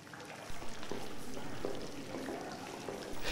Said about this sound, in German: Genau in der Mitte der Halle plätscherte ein Springbrunnen.